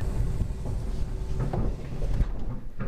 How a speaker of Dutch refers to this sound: Allemaal grote, imposante deuren die open en weer dicht gaan.